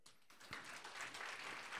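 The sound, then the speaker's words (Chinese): An audience breaks into applause for people present who have successfully lost weight, a dense, steady wash of many hands clapping that starts abruptly and holds at a fairly loud level without any talking. “有哇，给他们一个掌声。”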